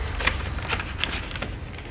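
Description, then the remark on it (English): Irregular rustling and light clinking as someone rummages through small objects and pulls out a thumb drive, with a few sharp ticks scattered over two seconds and no voices. “there does appear to be a thumb drive.”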